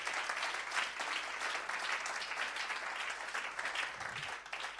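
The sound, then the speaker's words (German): A church audience applauds steadily to thank the people who volunteer in the diocese, a dense, sustained wash of many hands clapping at an even loudness for several seconds, with no individual claps standing out. “Gebt doch mal einen Applaus all den Leuten.”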